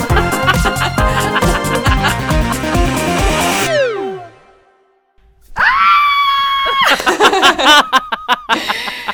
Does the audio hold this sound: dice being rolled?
no